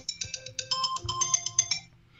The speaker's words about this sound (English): All right, that's our time. Every every show. nah, no. nah, that was that was that your was timer. For, okay, um, okay. that was our Kemba timer.